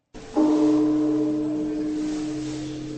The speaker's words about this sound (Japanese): 長野県の国宝善光寺の鐘の音です寺院が女人禁制だった古の時代から善光寺は女性のお参りを認めていました全ての人を受け入れて今日も時を告げています